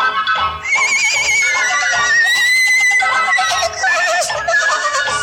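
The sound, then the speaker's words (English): A loud, drawn-out horse whinny fills about five seconds, shrill and quavering, its pitch wavering up and then sliding down in shaky bursts, with no talking over it. “And the horse said,”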